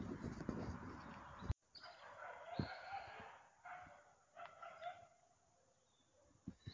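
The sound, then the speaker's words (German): Faint dog barks and yelps echo across an open outdoor space in a neighbourhood park, scattered and irregular, with some birdsong and a burst of wind or handling noise at the start. “Vogelgezwitscher, Hundegekläff, Idyll pur.”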